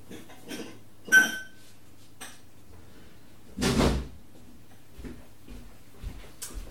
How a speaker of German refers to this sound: Ich hole jetzt noch zwei Gläser.